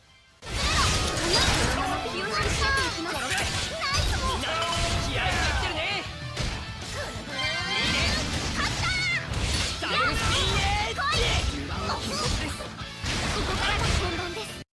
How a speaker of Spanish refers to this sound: Y vamos a poner un poquito de la música de combate para que se escuche más.